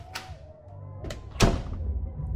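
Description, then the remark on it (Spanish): A door opens into a butler's room: a sharp latch click, a second softer knock, then a heavier thud as it swings, over a low steady rumble with no voices. “La puerta se abre y entra el mayordomo.”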